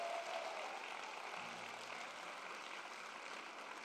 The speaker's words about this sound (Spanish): Vamos a darle ese aplauso fuerte al Señor si tú lo crees.